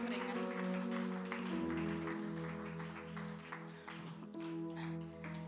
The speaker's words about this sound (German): Ganz herzlichen Dank. Applaus für Sie beide.